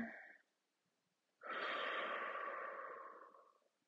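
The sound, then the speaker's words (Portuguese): After a brief pause, a long, deep breath is drawn in through the nose, a steady airy rush that swells quickly and slowly tapers off over about two seconds. “Então, inspira.”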